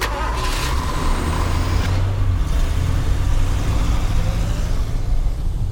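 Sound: truck driving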